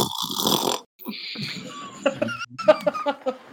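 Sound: vocal imitation of snoring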